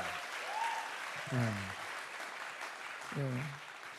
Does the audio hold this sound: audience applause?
yes